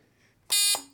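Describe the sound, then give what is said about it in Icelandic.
A single loud, harsh electronic buzzer blast, the bell sound of a quiz team named Stjarnan, lasting about a quarter second, rich in bright high overtones, followed by a lower lingering tone that fades out. “Getur þú að gefa okkur hljóðdæmi á bjöllina?”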